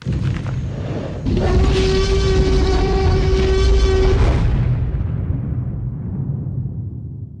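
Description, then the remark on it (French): A deep, drawn-out T-Rex roar, made from a mix of a Jack Russell terrier and a slowed-down baby elephant, with a steady, growling pitch, lasting about three seconds over a heavy low rumble, then fading into a booming tail. Loud, with no talking. “Donc c'est le bruit du, euh, T-Rex.”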